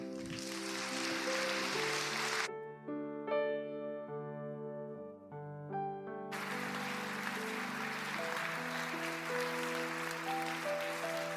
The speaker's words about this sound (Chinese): 我们再次用热烈掌声，谢谢这三位啊，念感念文跟纪念文的弟兄姐妹